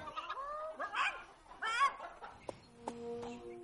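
Several hens in a henhouse cluck and squawk in a busy, overlapping chorus, fairly loud, with short bursts of calls tumbling over one another and a few higher drawn-out notes near the end.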